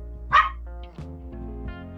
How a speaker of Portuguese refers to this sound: Pera aí, meu cachorro tá latindo aqui. Só um minuto.